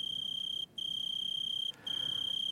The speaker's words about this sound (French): quand le gel a forgé le silence, venant du foyer, on entend s'élever le chant strident du criquet, de plus en plus fort dans la chaleur.